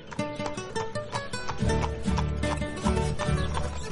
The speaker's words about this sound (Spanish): Mientras aquella campesina contaba su dinero, el abogado se fue muy contento en su nuevo caballo. Lo llevaba al trote y parecía un animal manso, como le había dicho la mujer.